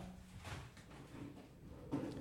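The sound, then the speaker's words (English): A chair scrapes and bumps across a hard floor, a few rough dragging sounds ending in a louder knock, with no one speaking. “That's just a, a chair.”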